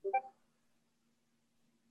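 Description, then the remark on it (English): A quick Discord app notification sound: two or three rapid, bright tonal blips in the first quarter second, then near silence with a faint low hum. No talking. “yeah yeah you're getting notifications is that my end no no no it's mine sorry I got my discord on for some odd reason”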